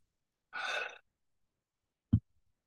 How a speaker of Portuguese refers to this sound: E começa a respirar pela boca.